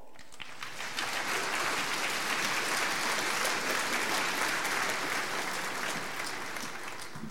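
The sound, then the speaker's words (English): Sustained applause from a sizable audience welcoming a woman speaker, a dense, steady wash of clapping that builds within the first second and holds at full strength for several seconds, with no voices over it. “Would you give her a warm welcome?”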